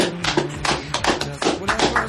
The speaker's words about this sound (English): Clapping myself.